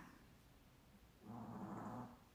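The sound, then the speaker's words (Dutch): A dog snoring softly, a low, rumbling breath that swells into one louder, slightly raspy snore before easing off, with no talking. “De hond snurkt een beetje.”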